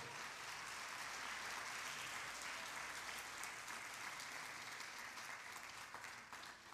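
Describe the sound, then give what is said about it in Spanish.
An audience applauds loudly and steadily for the King of Glory, a dense wash of many hands clapping together without pause for several seconds, with no voices standing out. “Déselo fuerte al Rey de la Gloria.”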